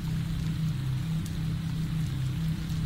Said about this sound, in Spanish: La lluvia no dejaba de caer.